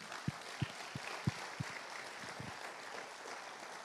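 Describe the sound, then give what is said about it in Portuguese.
An audience applauds, a dense wash of clapping with a few heavier rhythmic beats near the start that thin out, at a fairly low level with no one talking. “Pode, pode aplaudir.”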